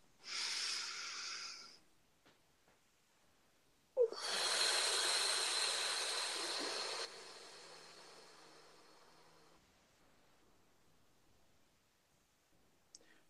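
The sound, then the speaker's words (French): A short breath is drawn in, followed by a long, loud exhale that gradually fades. The breathing is airy, with no talking around it. “Une respiration.”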